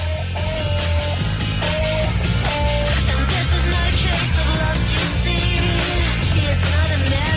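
A pop song by a Scandinavian band plays steadily and at full volume, with a repeating bass line, dense band backing and a clear melody riding on top, no talking over it.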